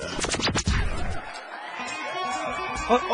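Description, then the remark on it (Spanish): A loud burst of audience applause and cheering welcoming El Show del Patrón, with sharp clap-like hits at the start giving way to a dense crowd roar and whoops that fill the whole moment. “Recibamos con un fuerte aplauso el show del patrón.”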